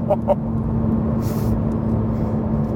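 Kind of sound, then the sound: vehicle, car engine running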